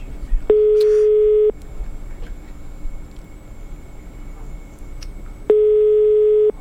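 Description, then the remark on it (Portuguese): A hotel phone line rings out on the caller's end: two steady, buzzing ringback tones, each about a second long, separated by a few seconds of faint line hiss, with no one picking up. “Nem pra atender o telefone do hotel.”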